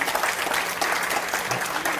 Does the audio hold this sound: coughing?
no